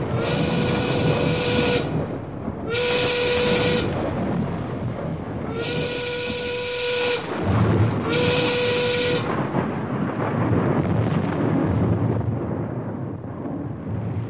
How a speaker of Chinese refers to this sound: 于是，岸边的海上救难队立刻鸣起警笛，动员大家救难。